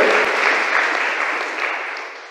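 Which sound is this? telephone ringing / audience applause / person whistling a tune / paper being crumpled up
audience applause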